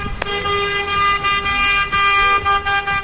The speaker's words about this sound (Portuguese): Ó, buzinaço!